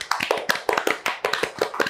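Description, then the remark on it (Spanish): A short burst of applause: steady, fairly dense hand-clapping at moderate volume, the claps slightly irregular, with no one speaking over it. “pero pues ahorita pues, un fuerte aplauso”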